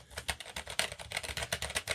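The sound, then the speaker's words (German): Rapid typing on a Mac rubber-dome computer keyboard, not a mechanical one, a steady run of soft, muffled keystrokes at moderate volume, with no voices. “Äh, ist keine mechanische Tastatur, ist, äh, die hat so ein, was, Mac Rubber Dome.”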